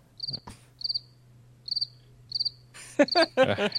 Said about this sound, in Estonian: jah, pane, pane ritsikad peale